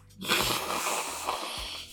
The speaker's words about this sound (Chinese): 擤鼻涕要剪进去吗？